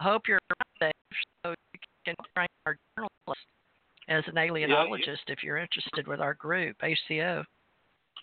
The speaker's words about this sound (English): Yeah, you're you're breaking up a little bit,